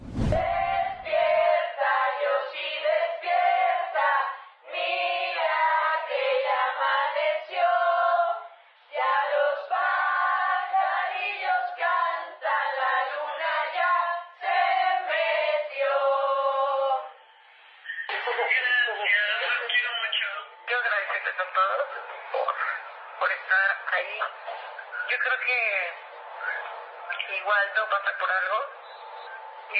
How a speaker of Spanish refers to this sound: se puede ver la familia de Joss, su novio, su perro, todos cantándole las mañanitas a través del teléfono